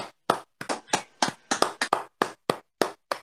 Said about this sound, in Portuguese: vamos dar uma salva de palmas